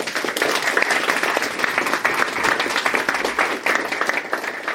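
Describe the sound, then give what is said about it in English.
An audience at a live Naked Scientists show applauds the evening's contributors, dense overlapping claps forming a loud, continuous wash of sound that holds even throughout with no voices on top. “Round of applause for all of them.”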